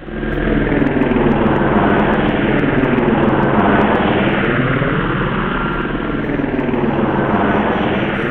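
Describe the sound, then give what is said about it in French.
A group of aircraft roar loudly over an avenue, one of them large and decorated with the Castix arms: a dense, steady engine and rotor drone whose pitch sweeps up and down as they pass, making a car vibrate, with no voices. “La voiture se mit soudain à vibrer alors que passait au-dessus de l'avenue un groupe d'orthoptères, dont un assez imposant décoré aux armes Castix.”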